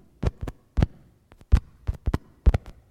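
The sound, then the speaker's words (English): A heartbeat thumps steadily and clearly, in quick doubled lub-dub pairs, about five beats in a row with no talking over it. “They heard the heart.”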